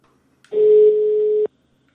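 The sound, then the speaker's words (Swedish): A single steady telephone ringback tone, heard while calling someone, sounds for about one second, a clear mid-pitched electronic hum heard alone and fairly loud, starting and stopping abruptly. “istället för att träffas i våran studio så ringer jag nu upp Thomas som jag startar det här programmet med”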